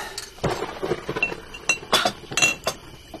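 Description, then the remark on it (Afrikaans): Ice-cold sparkling wine being poured into two glasses, heard as a run of bright glassy clinks and taps at an irregular rhythm, with a faint fizzing hiss between them and no voices. “vonkelwyn in twee glase. Ijskoue vonkelwyn.”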